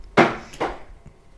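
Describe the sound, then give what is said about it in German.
Two sharp, hollow knocks from a refrigerator, a moment apart, followed by a much fainter third tap. No one speaks. “Nee, das ist äh, der Kühlschrank.”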